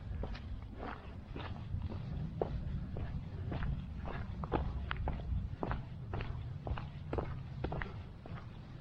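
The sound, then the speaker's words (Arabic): Quick, steady footsteps thud in an even rhythm, like someone running, over a continuous low rumble of background noise. No one speaks. “تيكحكح عاد يجري اوكي جري اخويا جري”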